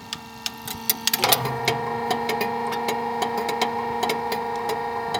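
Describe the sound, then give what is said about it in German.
An electric motor, switched on by hand, hums steadily with a tonal whine while sharp, irregular clacks of its relay contacts tick over it, starting sparse and then repeating in a busy, uneven rhythm. “Man hört also jetzt den Elektromotor und das Klackern der Kontakte.”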